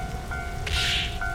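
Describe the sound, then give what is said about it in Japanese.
Steady rain sound effect, a continuous hiss with a brief brighter swell of spatter in the middle, layered with a sustained electronic ringing tone, mixed with a railway crossing sound effect. No one speaks. “雨の音、そして踏切の音、飛行機の音、パンチの音。”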